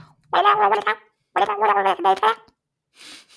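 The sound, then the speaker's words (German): A voice imitates the babble of an animal from the video game Animal Crossing, two quick bursts of chirpy, garbled syllables with a gurgling quality, followed by a brief faint breathy sound. “Ein Tier aus Animal Crossing verwandelt.”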